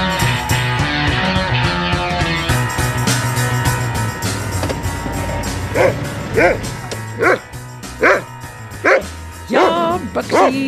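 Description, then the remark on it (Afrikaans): A dog barks and whimpers, letting out a run of about seven sharp, whiny yelps at a steady pace in the second half, loud over a busy musical background. “Ek het jou nie verlaat nie, my hond.”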